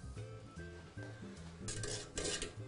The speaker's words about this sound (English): So now that our pasta is just about ready, we can see it's all starting to float. It's nice and tender. I'm just going to pull all this pasta out. Just let all the excess water drain off. We can get this right into our sauce.